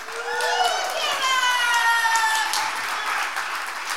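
An audience breaks into steady, loud applause lasting several seconds, dense clapping mixed with a few high cheers and whoops over the top.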